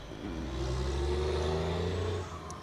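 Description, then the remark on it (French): A large truck rumbles past a balcony, its deep, droning engine loud and steady for about two seconds before fading as it moves away. No voices are heard. “Il y a un gros camion qui passe sur mon balcon.”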